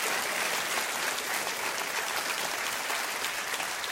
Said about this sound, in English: Clap your hands real big and say amen to that.